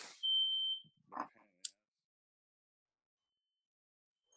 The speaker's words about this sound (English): uh, hey um guys, um, hold on, hold it, hold it. Smoke alarm's going off. Oh, we're keeping this. One second.